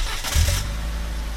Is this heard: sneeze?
no